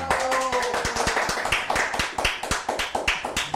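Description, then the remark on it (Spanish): A steady burst of applause, many hands clapping in quick, irregular succession at a moderate level, sounding like a small crowd, with no one talking over it. “O sea que, aplausos”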